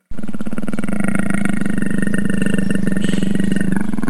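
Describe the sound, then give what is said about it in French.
A big cat roars in one long, loud, sustained bellow, deep and throaty with a rough, pulsing rumble that holds steady for about four seconds before easing off at the end. “Alors, c'est un félin.”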